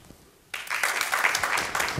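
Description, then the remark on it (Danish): A burst of audience applause at a high school starts abruptly after a brief quiet moment, then continues as dense, steady clapping from a group voting by applause for the word "magtfuldkommen", moderately loud and sustained with slight swells, no voices over it. “De allermest ambitiøse klappede på magtfuldkommen.”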